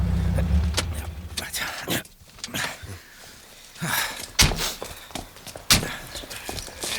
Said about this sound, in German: Oh, der Mann steigt aus.